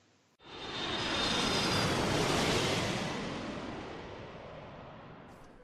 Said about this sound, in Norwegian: Vi har, vi har gjort noen intervjuer og, og mm, litt sånn stemning fra Flyturen i dag som vi skal høre på nå.